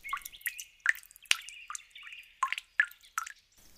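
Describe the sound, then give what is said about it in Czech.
A run of about nine clear drips of potion falling onto a sick tree in a forest, each a short bright plink with a slight ringing tail, falling at an uneven pace with no voices. “Když vše dokončil, vrátil se zpět do lesa a pokapal nemocný strom pár kapkami ze svého lektvaru.”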